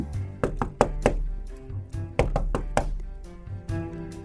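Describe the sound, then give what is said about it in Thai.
Loud, hard knocking on a door, the Tin Woodman knocking at the third door beside the palace, in two quick bursts of about four raps each, separated by a short pause, with a steady musical drone underneath. “ตอนนี้ออสมาขับรถอ้อมไปถึงประตูที่สามข้างวังแล้ว หุ่นกระป๋องเคาะประตูดังลั่น”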